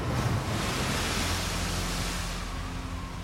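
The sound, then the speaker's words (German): A steady, loud roar of storm wind over a rough sea, dense and unbroken, with a deep rumble of heavy water underneath throughout. No voices. “Bei Windstärke 9 brüllt er. Doch wirklich ernst wird es, wenn er stöhnt.”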